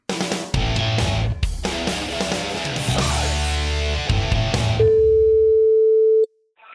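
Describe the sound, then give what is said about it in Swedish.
Music plays, then cuts to a single steady telephone ringing tone, a loud, sustained beep lasting over a second before it stops abruptly. “Hörni, vi tar och ringer till en man som ska gå match,”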